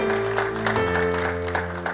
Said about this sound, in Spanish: Dales de fuerte aplauso al Señor porque Él es maravilloso.